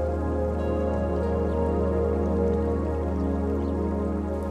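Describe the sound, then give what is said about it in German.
Steady, gentle trickling of slowly flowing river water with soft dripping and burbling, continuous and even throughout, moderately quiet, with a low steady hum underneath and no voices. “Diese aufbauenden Gedanken begleiten dich, während das Wasser gemächlich dahin plätschert.”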